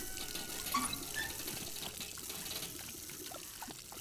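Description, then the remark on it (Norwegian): Water runs steadily from a tap, a continuous splashing, gurgling flow that stays fairly even for a few seconds, with no voices. “De tapper hele kvelden.”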